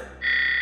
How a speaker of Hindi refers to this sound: आसपास देखा तो उसे बेड के साइड में कॉल बटन दिखा नर्स को बुलाने के लिए उसने वो बटन दबाया